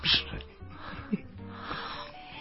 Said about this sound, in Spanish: Deja de estar jadeando, esta no es una película porno